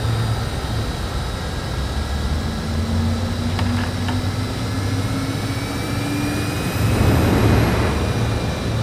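An aircraft's left jet engine relights after fuel injection and ignition, with the throttle opened very gradually. It whines and spools up over a steady engine drone, its pitch climbing gradually before swelling into a louder roar near the end, with no voices.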